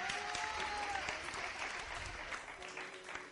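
An audience claps steadily to see off a guest, a dense patter of many hands at moderate loudness, with a faint tone briefly audible early on.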